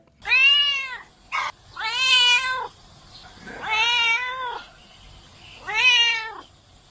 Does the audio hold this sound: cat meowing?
yes